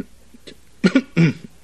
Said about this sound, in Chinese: 嘿，华生，你一连咳嗽了三次啊，感冒了啊？ 哦，不要紧。